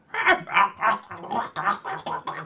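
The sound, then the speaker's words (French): A person imitates a call of Blue, a velociraptor, going to see Owen, with a string of about eight raspy, gurgling chirps in a quick, even rhythm, fairly loud, with no other talking. “Puis Blue va aller voir Owen, puis elle va y faire”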